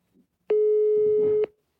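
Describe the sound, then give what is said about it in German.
A telephone busy signal from a call that goes unanswered: one steady, loud electronic tone lasting about a second, with a faint low rumble beneath it and no voices, then silence. “Und der Marco, der hat demnächst auch Geburtstag wenn er denn ans Telefon geht.”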